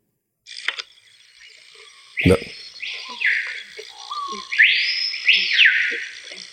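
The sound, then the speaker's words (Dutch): A screaming piha calls in a forest: a series of loud, ringing whistles that swoop sharply upward, piercing, over a steady background hum of insects. “Ik ga je laten horen. Screaming. wat je pia. dan, moet je voorstellen dat je dan loop je in het bos en dan hoor je dit.”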